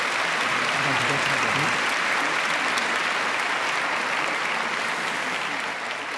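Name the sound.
audience applauding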